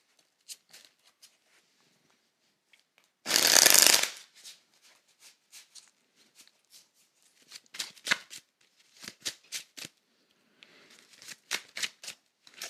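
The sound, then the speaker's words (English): Tarot cards being shuffled before a reading: a loud riffling burst, then a long series of soft, crisp card flicks and taps at an uneven pace, with no voices. “I'm going to shuffle, but if you have questions, send them.”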